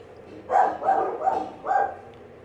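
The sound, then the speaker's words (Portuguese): Four dog barks in a steady, evenly spaced series, moderately loud, with no voices over them and a quiet background between barks. “Eu, eu, os cachorros latindo.”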